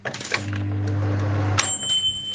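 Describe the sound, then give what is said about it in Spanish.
A microwave oven in a small home kitchen running with a low, steady electrical hum, then a sharp click followed by a thin, high-pitched sustained electronic tone. No one speaks. “Mira, ahora mismo estoy en mi mini cocina, que es mini cocina, pero para que veáis que realmente tengo cocina, voy a abrir el grifo. Voy a poner microondas.”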